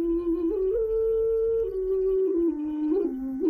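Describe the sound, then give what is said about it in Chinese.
A xun clay flute plays a slow, mournful melody in a low, breathy, hollow tone, holding long notes with gentle pitch slides and a soft low hum underneath. “这就是熏的声音，这就是立秋之音。”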